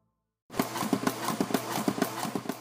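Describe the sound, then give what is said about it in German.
An artificial heart pumping: steady, rapid mechanical clicks and soft thumps repeating in a regular rhythm over a constant low hum, starting after a brief silence, with no voices. “Das sind Geräusche, die ein Kunstherz macht.”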